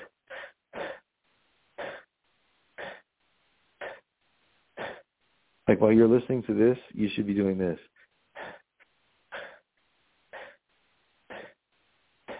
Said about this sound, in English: And all day long. That's actually what you're doing when you breathe without effort is you're taking really short breaths. The problem is they're not like actually big enough short breaths.